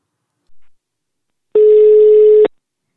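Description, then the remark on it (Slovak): A single steady telephone ringback tone, a flat, buzzy beep lasting about a second, sounds clearly and alone after a brief faint noise, as a call is being dialed. “Tak poďme mu zavolať. Poďme na to. No. Peťo, vytoč ho.”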